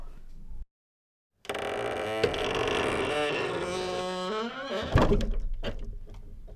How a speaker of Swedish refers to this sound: Och där klev Anton ut genom dörren. Du, vi borde smörja den där dörren.